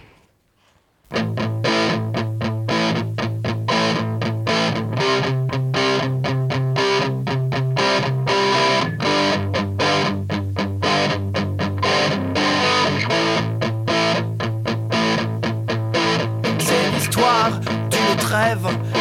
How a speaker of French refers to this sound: je vous propose une pause musicale.